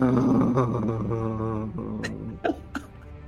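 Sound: voice imitating loud snoring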